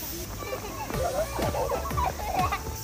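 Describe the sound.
Birds call over and over at a zoo, a series of short, harsh, downward-sliding squawks about every half second, with faint voices and crowd bustle behind them.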